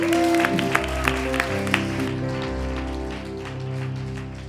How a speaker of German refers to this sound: Herzlichen Applaus!